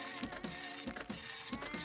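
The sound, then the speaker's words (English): A dot matrix printer prints steadily, its dense, rasping mechanical buzz rising in repeated passes about every half second, fairly loud with no voices. “Seriously though, I'm surprised you got a dot matrix printer and an elaborate computer to hold an internet connection in the 1920s.”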